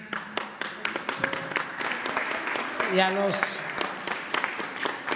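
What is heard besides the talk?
applause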